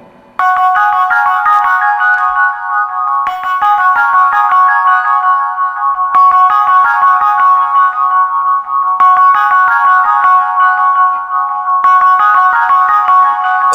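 A band's song plays loud and steady, its bright, chiming melody repeating in phrases of a few seconds each. It sounds electronic and tinkly, with no voices.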